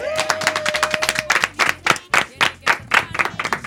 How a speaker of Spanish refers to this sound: Parece que un aplauso para las mujeres.